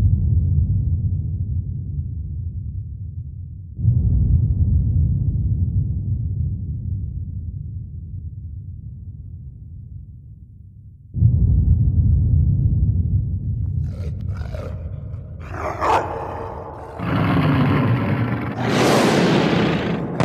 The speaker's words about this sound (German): Und dann donnert es unterirdisch.